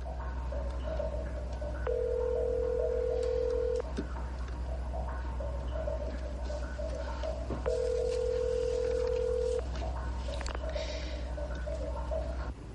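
A public telephone's ringback tone sounds in two long, steady beeps about six seconds apart, over a low hum and faint background noise, as a woman calls from a public phone in a hallway beside the open door of a bathroom.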